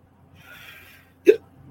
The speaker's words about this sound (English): I'm sorry, I got the hiccups.